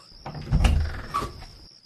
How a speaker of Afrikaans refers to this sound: Trek vir my die laai op.